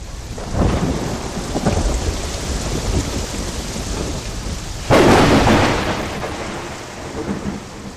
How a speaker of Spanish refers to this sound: ¿Qué le cuento? No llovió, diluvió, fue una puesta mojada.